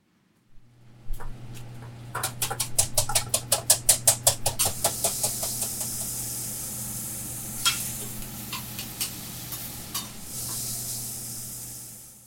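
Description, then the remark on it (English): Eggs sizzle sunny side up on a hot griddle as the mayor of Glasgow, Missouri, cooks them at 8:30 in the morning at the River Bend Family Restaurant, a steady bright hiss over a low hum, with a quick run of sharp metallic taps early on and scattered clicks later; no one speaks. “Walk a block from the Missouri River over to Main Street and the town of Glasgow, Missouri, and you'll find River Bend Family Restaurant, which has the mayor cooking up eggs, sunny side up.”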